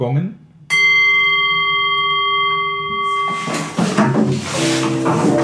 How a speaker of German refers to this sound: Jetzt, du darfst gongen.